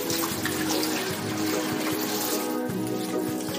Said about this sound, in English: So you just have your kava, and it's inside the pantyhose. I tie it. You don't have to. Um, and then you just take a gallon of filtered or purified distilled RO water, uh, I would recommend not tap. And you just pour it in.